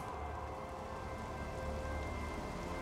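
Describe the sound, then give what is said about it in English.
Light rain falls steadily in a soft, continuous patter, fairly quiet and even throughout, with faint sustained tones humming underneath and no voices. “The light rain starts to fall.”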